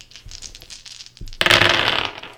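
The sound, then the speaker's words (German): Many dice are rolled during a tabletop role-playing game: a scattering of light clicks gives way to a loud, dense clatter as they tumble together across a hard surface, the rattle fading out over about a second. “So, das sind eine Menge Würfel und sie sind alle niedrig.”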